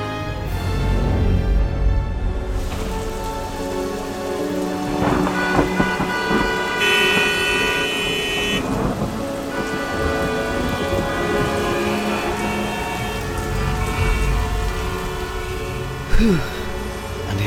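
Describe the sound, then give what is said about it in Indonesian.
Steady rain pours down in a dense, continuous wash, falling in what should still be the dry season, with a low rumble underneath and a few sustained horn-like tones drifting through. No one speaks. “Harusnya masih musim kemarau, tapi udah muncul hujan.”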